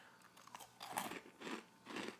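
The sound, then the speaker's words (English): Loud crunching as someone bites into a snack of salty, chocolate-dipped potato chip clusters made with crushed potato chips, with three main crisp chewing bursts about half a second apart and no talking. “Wow, very crunchy. There's like no give to them.”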